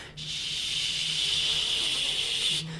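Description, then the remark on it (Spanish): Cascabeles rattles shaken by a musician make a steady, dense, hissing buzz much like cicadas, sustained for about two and a half seconds at a fairly even volume before stopping abruptly, with a faint low hum underneath. “Entonces culmina ciertos momentos, pero cuando yo hago cascabeles, ¿verdad? Que se asemejan a los sonidos de las chicharras, ¿verdad?”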